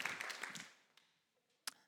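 A short burst of audience applause for a man asked to come to the front, a crowd clapping densely for under a second, then quickly dying away, with a couple of lone, sharper claps following. Fairly quiet.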